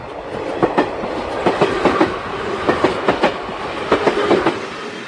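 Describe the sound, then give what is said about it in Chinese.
A train rolls steadily along the rails, its wheels striking the track joints in a regular clickety-clack of paired knocks over a continuous low rumble, with no voices. “在火车启动之前，我紧急地跳上车厢。”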